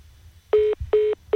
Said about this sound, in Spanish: Parece que, hemos tenido eh, un, problemilla de conexión con este teléfono. Vamos a tratar de recuperar la llamada